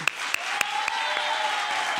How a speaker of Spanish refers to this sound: Por eso, nuestro público lunero va a recibir con un pedazo de aplauso a la altura de estas pedazos de actrices como son Carolina Yuste y Rosy Rodríguez.